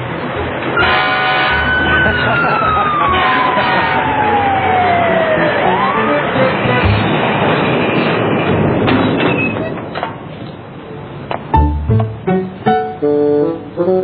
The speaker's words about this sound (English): one rings the fire bell on top of the truck. Go ahead, Caillou. Push it.